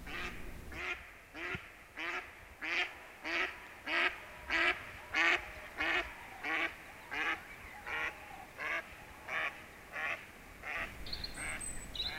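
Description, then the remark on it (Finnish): A duck quacks in a long steady series, about fifteen loud, evenly spaced calls that slow slightly toward the end, with a faint high bird note near the close, in a forest before dawn. “Lehtokurpat, telkät, sinisorsat ovat jo lennelleet pesimäpiirinsä ympärillä pimeässäkin.”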